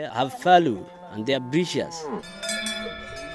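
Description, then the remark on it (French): Thousands of livestock at the port of Berbera call out in overlapping, drawn-out bleats and moos, fairly loud, giving way to steady ringing bell tones near the end. “Là, on voit des milliers et des milliers d'animaux à perte de vue.”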